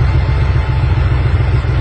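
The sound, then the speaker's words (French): A car engine runs roughly and steadily in thick fog, its low rumble uneven with a faint clattering rhythm throughout, with no talking. “Mais il y a quelque chose qui m'inquiète dans le moteur, là. Le bruit n'est pas bon, hein.”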